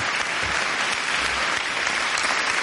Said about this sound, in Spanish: aplauso